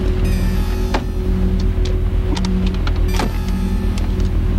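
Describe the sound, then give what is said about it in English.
Someone repeatedly tries a stuck door of a broken-down car that won't open, with sharp handle clicks and thunks over a steady, loud mechanical hum. No one speaks. “The door's stuck. Wait a minute, my door's stuck too.”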